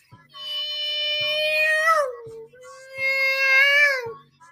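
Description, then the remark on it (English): A voice imitates a broken-down car: two drawn-out, strained whining tones that sag in pitch at the end, over a steady, slow knocking beat. “And you know your car is fucked up. And it's making this sound like,”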